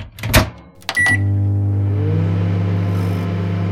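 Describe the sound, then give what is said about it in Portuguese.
A microwave oven starts up after a few clicks and door sounds, then settles into a steady, loud, low electrical hum that drones on without pause. “as ondas que aquecem os alimentos nos fornos de microondas”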